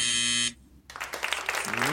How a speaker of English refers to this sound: Ooh, just got your point in there at the buzzer.